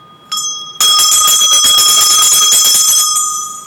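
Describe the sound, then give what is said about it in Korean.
An opening bell, recently repaired, is rung at the half-hour mark: a bright, clear tone with a brief first strike followed by a sustained, shimmering ring that holds steady and begins to fade at the end, loud with no talking. “자, 30분이 돼서 종부터 한번 칠까요?”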